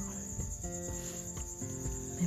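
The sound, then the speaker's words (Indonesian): A house gecko chirps in a quick series of sharp clicking notes, fairly loud, over a constant high-pitched whine and low hum, with no one talking. “suara cecak”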